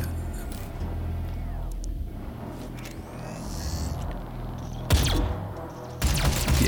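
Video game gunfire: a steady low engine-like rumble runs throughout, then a sharp burst of shots near the end, followed by a louder, sustained crackle of firing.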